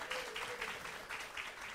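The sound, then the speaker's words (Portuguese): Steady applause from an audience at an event announcing the winners of a 2022 literary contest, as a cultural advisor is called up; a dense wash of many hands clapping at once, sustained and moderately loud without pauses. “Bom, eu, vocês não aplaudiram assim, entendeu?”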